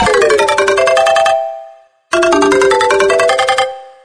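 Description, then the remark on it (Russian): A bright electronic mobile phone ringtone called "Energy Level" (Уровень энергии) plays a quick melodic phrase, pauses for a moment, then repeats the same loud tune. No one speaks. “Второе место. Рингтон «Уровень энергии».”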